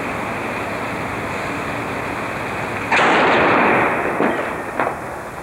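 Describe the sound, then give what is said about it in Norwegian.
A sudden loud explosive blast from charges blasting holes in the hull of the burning, listing ship Scandinavian Star in the Swedish harbour town of Lysekil, to let water out, breaks through steady background noise, followed by a rumbling decay and a couple of smaller cracks. “Derfor sprenger de hull i skroget for å få ut vann.”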